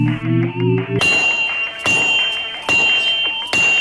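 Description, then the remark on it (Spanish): Hammer blows on a forge anvil: four loud, evenly spaced metallic strikes, each leaving a bright high ring, after a short rising low hum at the start. “con un martillazo de la forja,”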